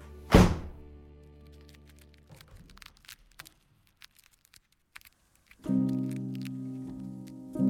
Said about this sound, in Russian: Дверь захлопывается перед твоим носом.